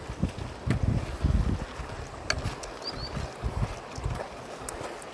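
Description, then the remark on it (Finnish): Wind gusts buffet the microphone in low, rumbling bursts beside the Kitkajoki river, with faint water and a couple of brief high chirps in the background. No one speaks. “Mukavasti tuulee tässä Kitkajoki varressa.”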